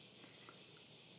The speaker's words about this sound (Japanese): はい聞こえるでしょうセミの声